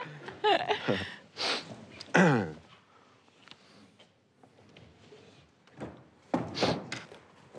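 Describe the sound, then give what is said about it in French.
A wooden door being brought onto a stage for a theatre performance and shifted about: irregular bumps, scrapes and creaks, with a few sharper knocks and thuds scattered across several seconds. “Et donc on va vous amener une porte, puisqu'il y a souvent beaucoup de claquements de portes.”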